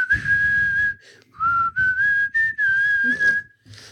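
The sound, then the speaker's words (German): Someone whistles the slow, tuneful melody of a rock ballad, with sustained notes gliding between pitches in short phrases separated by brief pauses, and no talking. “Ich kann nicht pfeifen, du musst pfeifen.”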